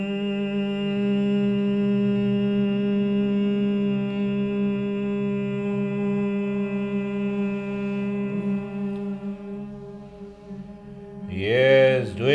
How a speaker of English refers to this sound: I should hear the sound with a humming sound. Breathing out. Hmm.